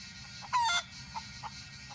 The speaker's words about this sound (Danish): Oraklet i Antium samler de hellige høns og kaster grøn til dem.